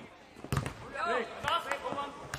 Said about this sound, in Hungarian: Ajajajajajaj! Majdnem egyszerre rúgtatok a labdába.